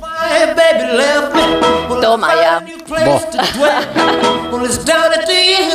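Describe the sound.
A 1950s rock and roll song plays loud, a sung vocal riding over the band throughout, with a brief dip in the middle and a short spoken exclamation over the music.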